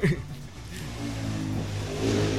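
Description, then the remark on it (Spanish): A motorcycle engine drones steadily outside, its low throaty rumble holding for a couple of seconds before revving up slightly louder toward the end. “Saluda a la moto otra vez.”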